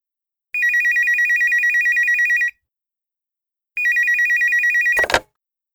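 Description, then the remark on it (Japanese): A telephone at the firm Shizuoka Printing rings twice in clear electronic bursts, each about two seconds long with a rapid warbling trill, separated by a pause, then cut off by a sharp click as the handset is picked up. “男の人と女の人が電話で話しています。”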